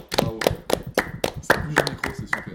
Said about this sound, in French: Bravo, à tout le monde. On peut applaudir ou pas on, ouais, on, peut, on peut applaudir.